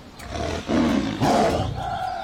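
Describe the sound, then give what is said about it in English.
A tiger roars loudly in two deep, rumbling surges, with a low growling tail between and after them and no one speaking. “Yeah, will the tiger be locked up for the whole time?”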